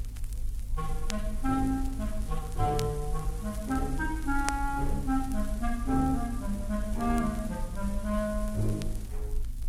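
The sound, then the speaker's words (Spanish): A sweet, smooth clarinet melody, the cat's theme in Peter and the Wolf, winds through a series of held and gliding notes over a soft orchestral accompaniment of sustained low tones, steady and moderately loud with no voices. “El gato, el clarinete dulzón.”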